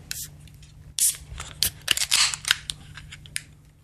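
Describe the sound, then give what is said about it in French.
A beer container being opened: a quick run of sharp clicks, crinkles and snips, irregular and fairly loud, over a faint steady hum, with no talking. “Eh bien, je vous propose de l'ouvrir.”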